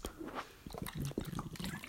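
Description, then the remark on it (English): Water glugging and gulping from a water bottle during a drink: a quick run of irregular wet pulses and splashy bursts, fairly quiet, with no one speaking. “My water bottle was straight up making a loud glugging noise right there.”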